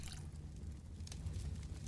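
Cold water splashes quietly in a steady wet sloshing, with a brief sharper splash partway through. It sounds soft, and nobody speaks.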